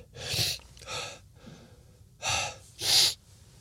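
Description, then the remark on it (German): Several sharp, breathy gasping inhales come in two pairs, fairly loud, like someone building up to a sneeze that never arrives. No talking. “Und jetzt muss ich niesen.”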